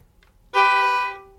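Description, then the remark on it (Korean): A violin imitating a car horn: a single loud honk-like, steady blaring tone lasting under a second before cutting off, with nothing else around it but faint background noise. “어, 자동차 경적 소리.”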